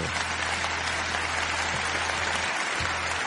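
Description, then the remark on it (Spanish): A steady, dense applause sound effect fills the whole stretch, a crowd clapping continuously at fairly loud level, with a low electrical hum running underneath and no voices, played by the operator in a program's studio. “Tiene más aplausos que César Cucho Alasta, eh, aviso.”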